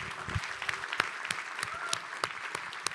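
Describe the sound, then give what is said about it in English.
An audience claps hands in praise to God after a prayer, in sustained, dense applause, with many overlapping claps forming a steady wash of sound at moderate volume. “Give him a hand clap of praise today.”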